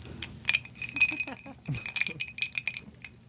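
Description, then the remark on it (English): Someone sips an ice-cold Coca-Cola from a glass bottle, with bright glassy clinks and a fizzy, bubbly hiss over a few seconds, while a low voice murmurs underneath. “I'm having an ice cold Coca Cola out of a glass bottle to George Carlin.”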